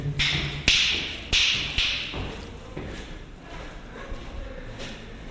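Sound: footsteps echoing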